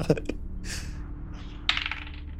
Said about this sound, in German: In der Zeit, bis die da sind, musst du dreimal würfeln, mindestens. Soll ich synchron würfeln und dir dann sagen, was rausgekommen ist?